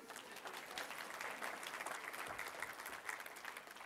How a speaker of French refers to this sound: Est-ce qu'on peut l'applaudir? Merci.